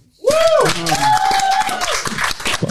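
A crowd breaks into loud, sustained applause after a brief quiet moment, dense clapping filling the space with a whoop or cheering voice rising over it early on.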